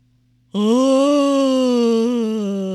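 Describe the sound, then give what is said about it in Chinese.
A voice imitates a hippo's big, drawn-out yawn: one loud, sustained low moan that begins abruptly, holds steady with a slight rise and dip in pitch, and fades a little toward the end. “河马一下子大大的打了一个哈欠，伸了个懒腰，站起身来。”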